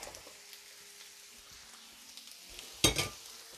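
Cooked fine green beans (Prinzessbohnen) being drained from a pot into a colander: a steady, hissing rush of pouring water, then a brief loud burst with a metallic clank near the end. No one speaks.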